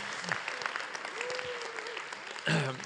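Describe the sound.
An audience claps steadily for a few seconds for a runner's 39 km run in 3:14, a dense wash of many hands, with a brief voice rising through it and a louder burst of noise near the end.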